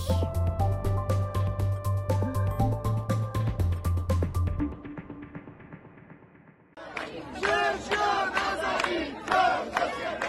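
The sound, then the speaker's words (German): A large crowd of protesters in Iran chants the slogan "Jin, Jiyan, Azadi" (Woman, Life, Freedom) in loud, rhythmic unison, voices rising together in repeated bursts; it comes in after a few seconds of music fade out. “Das war der Ruf, der aus dem Iran bis auch zu uns hier in Deutschland und in der ganzen Welt zu hören war über Medienberichte und auch Videos in den sozialen Netzwerken.”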